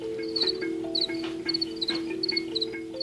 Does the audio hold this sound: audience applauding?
no